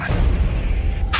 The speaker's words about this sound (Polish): Po chwili drzwi do pokoju otworzyły się z hukiem